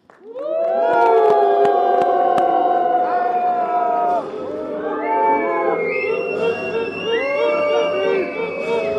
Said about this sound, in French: Donc nous allons accueillir, s'il vous plaît, l'arbitre. Il paraît qu'elle a été élevée par des loups. Personne n'a jamais réussi à la faire sourire. Huez-la, détestez-la.